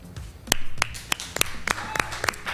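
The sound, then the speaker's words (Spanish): A short burst of clapping, with sharp, evenly spaced claps at a steady rhythm, fairly loud over a faint low background murmur; applause from the show's team. “El aplauso de toda España previo a la larga y de todo nuestro equipo para estos datos de Clemente hoy.”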